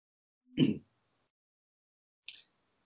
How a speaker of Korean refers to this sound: 자꾸만 기침이 나오네요. 네. 죄송합니다.